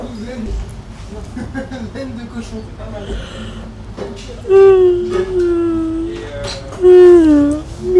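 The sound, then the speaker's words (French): Someone talks briefly, then a person imitates a lion roar with two loud, drawn-out vocal growls that slide downward in pitch, the second shorter than the first. “Ensuite, la deuxième partie, euh, j'imite énormément d'animaux. C'est vrai. Voilà, notamment un lion.”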